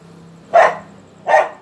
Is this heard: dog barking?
yes